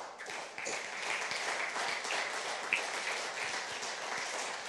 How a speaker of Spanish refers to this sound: Denle un aplauso a Dios, venga.